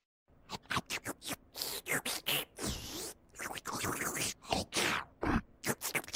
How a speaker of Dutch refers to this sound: Maar toch wisten opvallend veel mensen het juiste antwoord. We horen namelijk de toch stofzuiger uit de Teletubbies, genaamd Nono.